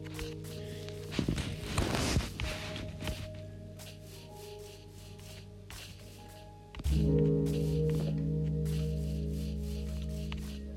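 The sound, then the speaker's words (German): Repeated hoof-like clip-clop steps of a horse tap along in a steady rhythm over a low droning hum, with a rougher burst early on and the background swelling louder partway through. “Pferd.”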